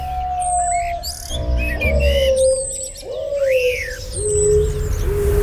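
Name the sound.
bird singing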